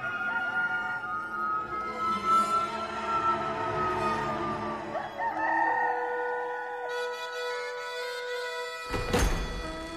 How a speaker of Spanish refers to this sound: Y al instante cantó un gallo.